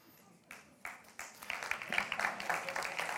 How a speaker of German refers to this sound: Merci für den Applaus.